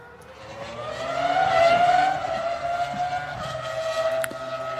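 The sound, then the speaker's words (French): A Formula 1 engine screams at high revs, its pitch climbing sharply then holding a loud, steady whine for several seconds, heard on its own without any talking. “Ah si ça marche Ça, c'est du bruit, mesdames et messieurs.”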